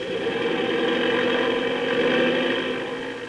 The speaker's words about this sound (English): Gee, those propellers sure stir up the wind.